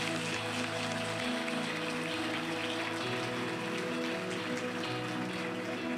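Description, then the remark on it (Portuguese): An audience applauds: dense, steady clapping from many hands fills all six seconds at an even loudness, with sustained low musical tones running underneath and no one speaking. “Se é para aplaudir, aplauda com vontade, irmão.”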